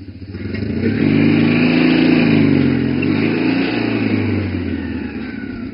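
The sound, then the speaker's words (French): A small two-cylinder engine of a racing barquette, a stock 375 cc unit modified to 348 cc, revs loudly, its throaty drone swelling, dipping and climbing again over several seconds, with no voices. “le moteur bicylindre de 375 cm3 de série est modifié pour atteindre 348 cm3.”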